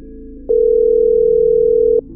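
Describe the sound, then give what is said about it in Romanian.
A single telephone ringback tone while calling the only contact saved on a mostly empty phone, one steady electronic beep lasting about a second and a half, loud over a faint low background hum, with no talking. “Era un singur contact, numit Sună-mă, așa că am făcut-o. După doar un singur apel, a răspuns o voce.”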